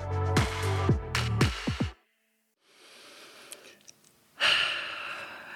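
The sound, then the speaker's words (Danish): A few bright musical notes of an intro jingle end in a short silence, then a slow, airy inhale of a deep breath builds and gives way to a loud, rushing exhale. “Ja, jeg starter lige med at tage en øh, dyb vejrtrækning, ligesom i intro -jinglen.”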